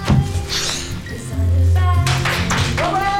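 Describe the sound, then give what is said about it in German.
Applause fills a room, a dense, continuous patter of many hands clapping that swells louder partway through, with voices calling out and cheering over it, celebrating a couple's engagement after a marriage proposal at a police station. “Applaus füllt den Raum.”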